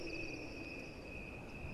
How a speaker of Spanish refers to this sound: El viento hacía oscilar el letrero colocado sobre el dintel. Un sonido semejante a la de mil grillos que chirreasen al unísono.